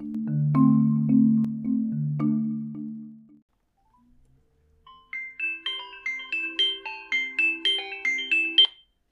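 A phone rings: a few low, buzzy tone bursts, a short pause, then a bright electronic ringtone melody of quick repeated high notes in a steady pulsing rhythm. No one speaks.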